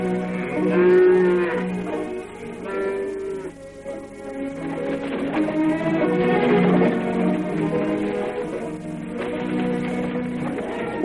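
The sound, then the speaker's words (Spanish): Several cattle moo in long, low, overlapping calls, one after another with barely a pause, as they are herded through a grove. The herd sounds steady, with no voices. “Los esclavos arrean vacas y portan troncos cortados en un carro a través de la arboleda.”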